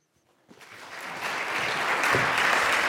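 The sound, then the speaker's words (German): Applause from an audience starts up after a brief quiet moment and quickly swells into steady, dense clapping that keeps building in loudness until the end, greeting the film's two lead actors, Alexandra Maria Lara and Daniel Brühl. “dürfen gleich weiter klatschen, denn ich freue mich sehr, äh, die beiden Hauptdarsteller des Films begrüßen zu dürfen, Alexandra Maria Lara und Daniel Brühl.”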